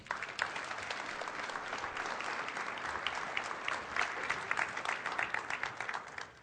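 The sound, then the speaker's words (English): A church audience claps steadily for the band, a dense wash of many hands applauding at an even level for several seconds, with no one speaking over it before the clapping thins toward the end. “Can you guys give these guys a round of applause?”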